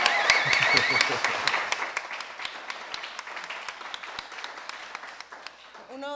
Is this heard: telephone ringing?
no